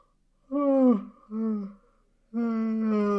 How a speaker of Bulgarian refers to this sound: се прозява.